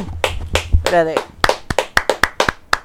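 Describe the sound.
Brief applause for 'las muchachas' (the girls), called for during talk about FIBA basketball: a few people clapping in sharp, fairly steady claps that grow more regular toward the end, with voices and a burst of laughter early on.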